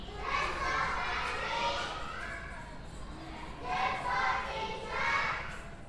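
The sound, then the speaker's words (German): Children's voices chatter and call out during lessons at a neighbouring Montessori school, heard through an open window: a busy murmur of kids swelling in two bursts over a steady background hum, with no clear words. “Während unseres Gesprächs hören wir durch das offene Fenster den Unterricht der benachbarten Montessori-Schule”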